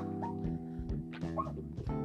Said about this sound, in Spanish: Hay muchos perros en la calle, amigos. Amigos, hay muchos perros. Bueno, ya van como tres que me ladran, no hay pedo.